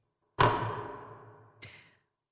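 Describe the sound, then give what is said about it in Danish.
A gavel comes down on the Radio 4 programme Folkedomstolen with a sharp wooden crack that rings and decays, followed by a second, softer knock about a second later. No voices are heard. “Og, og nu har jeg slået med hammeren, og så er det bare sådan, det er.”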